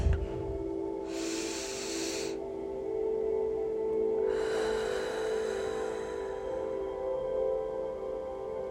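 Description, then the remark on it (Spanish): A deep breath, the first of three in a guided relaxation exercise, is drawn in with a short airy rush, then let out in a longer, softer exhale over a steady low hum with no talking. “Primera respiración.”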